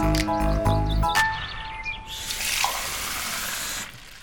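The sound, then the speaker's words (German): A brief musical chime gives way to water running steadily from a tap for a few seconds, a hissing gush that ends abruptly. “Hier bei uns in Deutschland kann man ganz ohne Probleme das Wasser direkt aus dem Wasserhahn trinken.”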